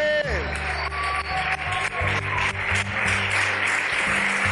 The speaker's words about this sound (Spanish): Amén, otro aplauso. Sí, es para aplaudir, para glorificar, para gritar, ¿vale?